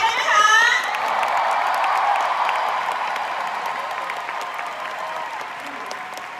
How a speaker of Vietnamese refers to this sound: Cái tiếng à, cái tiếng vỗ tay này là chỉ của 21% thôi. Hãy xin tiếng vỗ tay của à, Diamond A70.